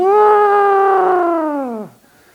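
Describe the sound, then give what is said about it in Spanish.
A loud, drawn-out shout from the audience, answering a preacher's call to shout down the walls of Jericho, held steady for nearly two seconds before the pitch sags and trails off into quiet. “Entonces, ¿por qué gritas tú así?”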